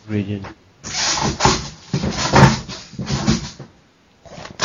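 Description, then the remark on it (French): A wooden chair scrapes and drags across the floor in several rough, rasping bursts, fairly loud, with a short burst of voice just before the scraping begins. “Non, c'est ma chaise.”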